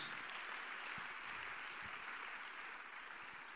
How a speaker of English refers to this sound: Give the Lord a hand clap of praise if you're ready to make decisions.